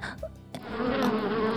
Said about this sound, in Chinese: 一大群蜜蜂嗡嗡叫，围上了他们。熊爸爸说：“ 儿子，怎么办？好多蜜蜂啊！”